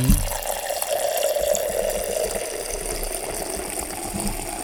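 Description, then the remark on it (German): Beer pours steadily into a half-litre glass, a continuous hissing, gurgling liquid stream at moderate loudness with a frothy rushing texture, no voices over it. “Ich sehe schon, das geht sich wieder mit einem halben Liter Glas nicht aus.”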